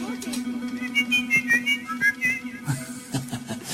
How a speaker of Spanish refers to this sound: Sí, hermano, y silba dos voces.